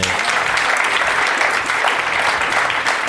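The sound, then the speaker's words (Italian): Steady applause from a group, dense clapping with a bright, hissy texture that stays loud and even throughout, with no pauses or voices rising above it. “E beh, un applauso perché...”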